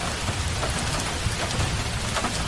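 Steady rain falls without a break, a dense hiss of drops pattering on a surface with a low rumble underneath, even in loudness throughout.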